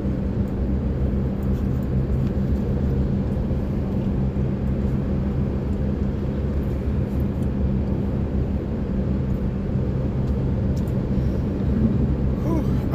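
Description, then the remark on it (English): A steady, loud low rumble of road traffic or vehicle noise runs unbroken for the whole stretch, droning evenly with no distinct events and no one talking. “Uh, dealing with the um, vagaries of traffic and uh, medicine again.”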